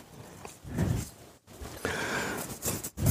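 A knife works through crispy roast duck skin, giving crackling crunches and scraping strokes in uneven bursts, with a short pause midway and no one speaking.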